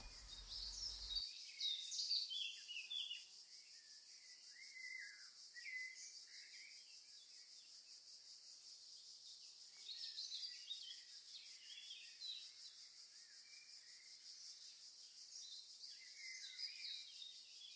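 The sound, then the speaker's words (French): Outdoor forest ambience filled with many small birds chirping and trilling, a steady bed of high twittering calls with no voices, fairly quiet overall. “Pour commencer, j'aimerais que tu te projettes dans la forêt.”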